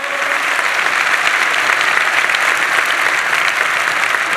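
An audience applauds its own generosity toward the church food bank, a dense and even wash of clapping hands that holds at a loud, constant level for several seconds with no voices over it.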